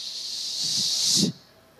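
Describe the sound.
A voice imitates spraying Baygon aerosol insecticide at a cricket in a house, with one sustained, bright hiss lasting over a second, cutting off abruptly, with faint low vocal murmurs beneath it.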